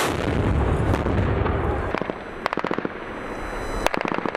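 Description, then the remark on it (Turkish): Howitzer artillery fire by the Turkish Armed Forces striking designated targets in Ras al-Ayn (Rasulayn), Syria: a dense, heavy rumble for about two seconds, then a series of sharp, loud bangs, several in quick succession, with one more blast near the end. No talking. “Meskun mahalledeki çatışmaların yanı sıra belirlenen hedefler obüslerle vuruldu.”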